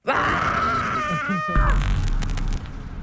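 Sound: person screaming loudly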